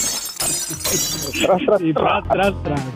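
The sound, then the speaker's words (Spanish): A coffee cup shatters on the floor in a bright, crashing burst of breaking fragments lasting over a second, then a person starts talking as the clatter fades. “levanta la taza del café, tómale, eh, sórbele, que se que se escuche que está tomando café y sas, culebra, al piso.”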